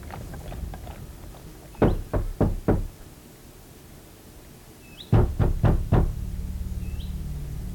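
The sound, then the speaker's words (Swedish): Two sets of four firm knocks on a wooden door late in the evening, evenly spaced and separated by a short pause, over a low background rumble. “En sen kväll den 6 oktober 1849 knackade på Erik Martinssons och Eva-Stina Andersdotters dörr”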